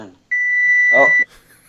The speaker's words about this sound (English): Like, is that is that, get, is that the like timer or is that the fire detector uh, going off? I'm sorry for that. That's completely embarrassing, but it's the timer.